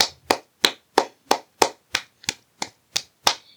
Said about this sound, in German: Ja! Dafür kriegt sie einen Applaus.